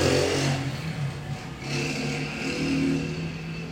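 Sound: motorcycle engine revving outside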